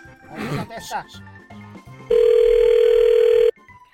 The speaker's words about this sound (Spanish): Ya le estamos marcando. ¿Sí escuchas?